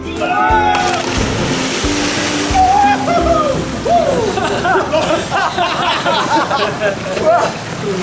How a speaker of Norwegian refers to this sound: Da er det vel bare det som gjenstår. Å hoppe i sjøen. Three, two, one, jump!